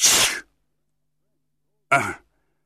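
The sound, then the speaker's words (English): Two sharp sneezes from someone with a terrible cold, with a short silent gap between them, the first longer and breathier, the second quicker. No talking. “The first time I began to sneeze”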